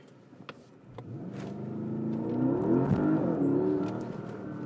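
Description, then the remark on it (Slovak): A Porsche Panamera Turbo's engine accelerates hard, its note rising steadily in pitch and loudness over a few seconds, heard from inside the car with no talking. “počuť to je a asi to aj cítiť, ako to ťahá.”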